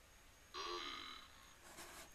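A single burp lasting under a second, abrupt and rough with a throaty rasp, stands alone, followed by a faint rustle and no talking.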